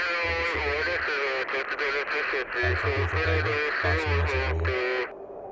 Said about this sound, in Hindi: CO साहब का message है सर आपके लिए ऐसे वक्त पे सीओ का वायरलेस पे मैसेज आना अधिकतर कोई सीरियस बात को लेके ही होता है